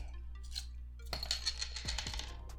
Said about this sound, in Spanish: Pues antes de empezar, vamos a destapar la shellita porque.